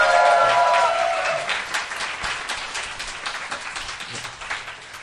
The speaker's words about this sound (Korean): 이번 공개 방송에서는 어, 너츠 커피, 꽃이 잡곡 그리고 무비스트 세 곳에서 어, 후원을 해주셨어요. 어. 박수 좀 쳐주시면 감사하겠습니다